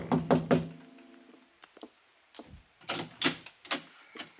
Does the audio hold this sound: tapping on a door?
yes